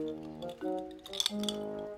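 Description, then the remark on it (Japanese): Ice cubes clink against a glass of milk as someone drinks it, a few bright, light taps clustered together over a faint ringing hum, with no one talking. “はあ最近牛乳にね氷入れて飲むのがね私の中でね流行ってんの流行るっていうほどなのか分かんないけど”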